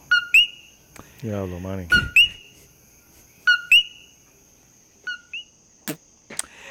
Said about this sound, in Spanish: O sea, los coquí, eso fue lo que escuchamos. Nada más.